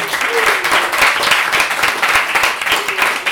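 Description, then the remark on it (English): An audience applauds the two bartenders working the bar at an event, many hands clapping in a dense, bright patter that stays loud and even for a few seconds without any voices. “Round of applause for Dan and Seiji.”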